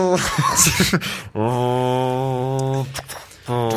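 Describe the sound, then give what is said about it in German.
A person imitates a car engine with their voice: a sustained, steady droning hum held for over a second, then a short break and the drone starting again, fairly loud. “Kannst du ein Auto nachmachen?”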